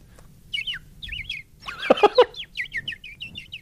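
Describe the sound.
A person whistles a lively imitation of bird chirping, quick warbling trills repeated in short bursts, with a louder, lower squawking flourish in the middle before the high twittering resumes.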